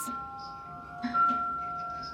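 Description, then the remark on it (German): A crystal glass rings with a clear, sustained high tone; a light strike partway through adds a brighter ping that lingers and slowly fades, fairly quiet. “Hier erfährt man auch, dass Glas nicht nur schön aussieht, sondern auch klingen kann, wie beispielsweise mit dieser Glasorgel oder dass Kristallglas einen satteren Klang hat als normales Glas.”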